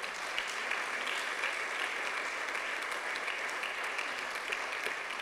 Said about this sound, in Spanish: Dele un aplauso al Señor, hermano, por favor.